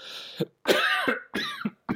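A clear series of harsh coughs and throat clearing, several rasping bursts broken by short pauses, with no talking.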